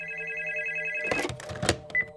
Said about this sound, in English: So, as I said, Minnie and William received a mysterious phone call one evening.